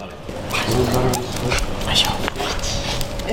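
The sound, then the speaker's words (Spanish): A dog named Asken, on night watch with its owner in Irún, barks and yips in a few short bursts over a steady, noisy background with indistinct murmuring voices. “Ella también eligió pasar a la acción, y si por la mañana no está en la Plaza San Juan, por la noche hace guardia con su perro Asken.”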